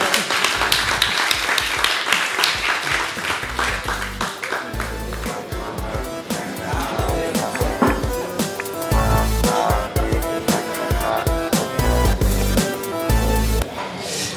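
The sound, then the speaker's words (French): A live audience applauds steadily for about fourteen seconds at a public event about science and gastronomy, a dense wash of many hands clapping at a fairly loud, even level, with some voices and tonal sounds mixed in. “applaudir.”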